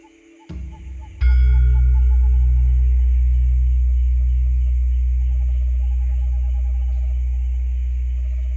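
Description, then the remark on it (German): A large Javanese gong, the oldest instrument of the gamelan, is struck once after a soft preliminary tap. It releases a deep, booming hum with a slow pulsing waver that rings on loud, fading only gradually. “ist dieses Einssein von Anfang und Ende, die Schöpfung, wird ausgedrückt im Klang des javanischen Gongs.”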